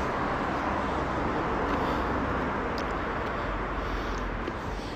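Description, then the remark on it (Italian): A city bus approaches amid street traffic, rumbling with a steady, loud low engine drone and road noise filling the scene with no voices. “Quindi ecco l'autobus.”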